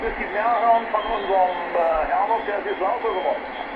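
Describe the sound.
A single-sideband voice signal from the amateur radio bands on a shortwave receiver, thin and band-limited with a muffled, slightly garbled quality, with steady hiss and faint low thumps.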